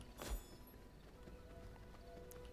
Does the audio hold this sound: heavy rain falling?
no